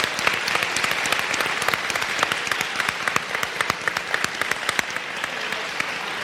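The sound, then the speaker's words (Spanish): An audience bursts into loud, sustained applause in agreement with a call for a miniseries starring Robotnik, dense overlapping claps continuing steadily for several seconds with no voices rising above it. “Voy a rogar encarecidamente, es más, voy a rogar que por favor aplauda bien fuerte todo aquel que esté de acuerdo conmigo en pedir para allá, de momento, una miniserie protagonizada por Robotnik.”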